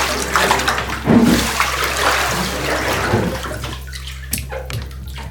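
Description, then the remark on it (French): Water sloshes and splashes in a bathtub as a person slips in it, making a wave: a broad, rushing wash that swells and churns for a few seconds, then settles into quieter drips and small splashes with a couple of sharper splashes near the end. “Je reglisse instantanément, provoquant cette vague que tout surfeur aimerait se taper une fois.”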